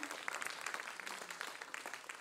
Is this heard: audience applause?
yes